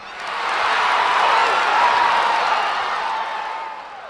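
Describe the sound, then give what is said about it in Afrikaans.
A loud, excited crowd of spectators at a sports field roars with laughter, cheering and clapping hands and wings. A dense wash of many voices and applause swells in and stays steady before easing off slightly at the end. “hoor hoe die opgewonde toeskouers lag en hande in vlerke klap. Die geraas is oorverdowend.”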